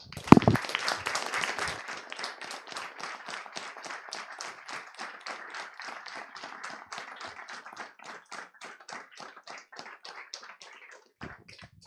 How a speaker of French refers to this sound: Alors, maintenant, euh, je vous propose d'applaudir fortement Frédéric Le Moral.